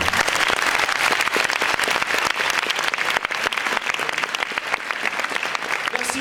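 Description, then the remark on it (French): A crowd applauds the mayor steadily, a dense wash of many hands clapping at a constant loud level for several seconds without letting up. “je vous demande d'applaudir encore une fois Monsieur le maire.”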